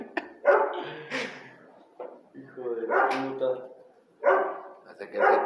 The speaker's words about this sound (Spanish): Ah, puto perro, hijo de tu perra, madre de mi papá.